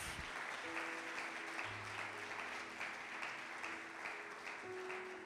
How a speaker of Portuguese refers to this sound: Vocês creem nisso? Então dá uma salva de palmas ao Senhor Jesus.